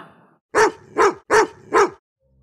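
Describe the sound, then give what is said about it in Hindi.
A dog barks four times in a steady, evenly spaced rhythm, each bark loud and sharp, with nothing else audible around them. “फिर ऑलिवर और वो महिला बाहर घूमने गए और ऑलिवर भौंका”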